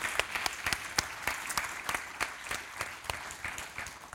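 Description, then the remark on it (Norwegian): A crowd claps steadily for about four seconds, a dense, even patter of many hands with a few sharper individual claps standing out. No one speaks. “Der står det applaus i manuset mitt.”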